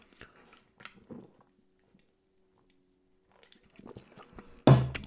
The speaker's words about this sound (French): Donc, excusez-moi, j'en prends une petite gorgée, ne m'envoyez pas, deux secondes.